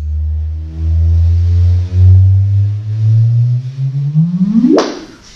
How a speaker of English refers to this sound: That is the sound of two neutron stars colliding, but it's also the sound of the dawning of a new era in astronomy.